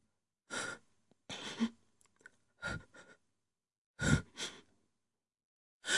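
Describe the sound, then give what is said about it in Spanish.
A woman cries softly: a few shaky, breathy sobs and sniffles in uneven bursts with short pauses between them, with no speech. “Venga, tonta, no llores.”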